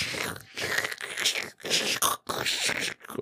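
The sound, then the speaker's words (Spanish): A voice imitates the scratchy crackle of a worn volume-control potentiometer when it is turned, making a string of five or six hissing, crackly bursts with short breaks between them, fairly loud with no actual words. “Los contactos eh, son los que están en los potenciómetros o en los controles de volumen, que es a los que se le mete el ruido de que cuando tú lo mueves suena”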